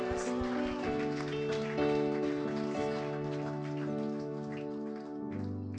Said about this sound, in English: Let's praise God. Good man, clap of praise. Amen.